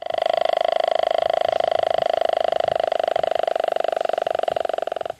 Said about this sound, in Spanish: Pero cuando van en la subienda, esos machos cortejan a las hembras roncando. que sí parece un ronquido como el que los humanos hacemos, pero es particular para el del boca chico. Aquí va un snippet del ronquido del bocachico